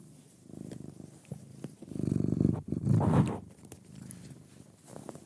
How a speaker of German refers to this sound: Möchte die Katze, die neben mir auf dem Sofa liegt, noch irgendwas dazu mitteilen? Nein, die möchte nur am, am Mikrofon schnüffeln. Kann man sie zum Knurren, Schnurren motivieren, wenn man sie krault?